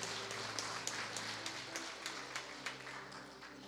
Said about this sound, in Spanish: ¿Cuántos hijos de Dios hay aquí? Dele el aplauso al Señor si usted es un hijo, una hija de Dios.